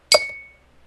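A single bright, sharp clink of wine glasses touching in a toast, with a clear ringing tone that fades over about half a second into quiet.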